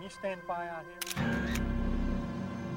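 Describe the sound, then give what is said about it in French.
Crisp camera shutter clicks arrive in a quick pair, followed by a sustained mechanical whir, after a brief stretch of talking, as a crime scene where a car had stood is photographed from all angles. “Miller photographia cette nouvelle scène sous tous ses angles.”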